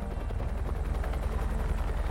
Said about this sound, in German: Das Geräusch der Hubschrauber dröhnt in ihren Ohren. Hubschrauber, die Überstunden machen, um das private, privilegierte Krankenhaus auf der anderen Straßenseite zu evakuieren.